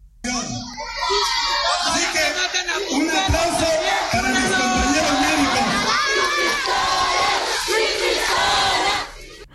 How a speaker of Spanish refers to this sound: Lo otro que le gritaron, se lo voy a poner porque así está manifestándose la gente en Tangancícuaro, Michoacán, es un poco fuerte, pero escuche cómo le gritan al alcalde Mataperros.